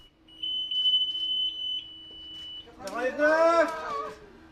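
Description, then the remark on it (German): A steady, high-pitched electronic beep tone from the onboard GPS of the cruise liner Kommandant Chacot, sounding at 90 degrees north at the geographic North Pole, continues for a few seconds, then cheering and excited voices on the ship's bridge burst in and drown it out. “Der Jubel auf der Brücke übertönt den hohen Ton des Bord-GPS, das bei 90 Grad Nord anschlägt.”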